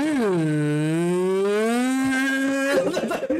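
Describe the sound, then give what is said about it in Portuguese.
A voice imitates a PlayStation 3 console's cooling fan running at maximum speed on startup, with a long, steady, low droning hum that dips slightly in pitch and holds for nearly three seconds, then breaks into a rough, breathy noise. “Você liga o Play 3 e ele faz assim, ó.”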